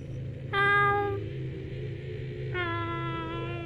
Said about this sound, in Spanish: Cuando estaban en la caseta se escuchó de nueva cuenta al gato, y el compañero esta vez no lo tomó como antes.